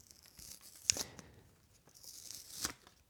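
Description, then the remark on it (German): Plastic wrap on a new CD case being torn and peeled off as the CD is unboxed for the first time: crinkly, hissy tearing in uneven bursts, with two sharp crackling snaps along the way, and no voices. “Oh ja, tolles Geräusch. Das ist jetzt Unboxing.”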